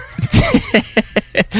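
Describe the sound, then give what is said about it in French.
A voice mimics an Epson dot-matrix printer with a quick series of buzzy, rasping mouth bursts in an uneven rhythm, loud, ending on a longer held buzz. “on dirait que c'était un bruit d'imprimante Epson que tu faisais.”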